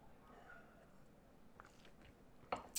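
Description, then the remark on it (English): A speaker takes a quiet sip of water: a few soft wet mouth clicks and slurps, ending in two louder swallowing sounds, with no talking. “I'm going to take a sip of water before that actually.”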